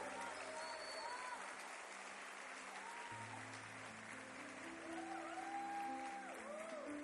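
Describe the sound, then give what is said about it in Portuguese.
A church audience claps steadily and densely for several seconds to welcome a pastor, a continuous wash of applause with sustained organ or keyboard tones underneath and a few faint voices. “Vamos recebê-lo com uma salva de palmas ao Senhor.”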